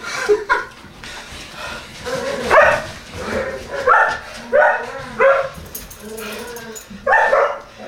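Four collies run and bark in a rapid, overlapping flurry, with about eight sharp, loud barks and yips bunched close together over the whole stretch, against a busy, noisy background.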